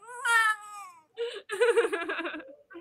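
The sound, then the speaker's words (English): A person imitates a cat, letting out a drawn-out, falling meow followed by a second longer, wavering meow-like wail, fairly loud with no other sounds. “I, I like more like a cat.”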